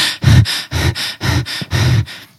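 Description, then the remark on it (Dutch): A person imitates the heavy, exhausted panting of runners: about eight quick, forceful breaths in a steady rhythm, loud, with no words spoken. “ze hijgen en, en ze gaan diep.”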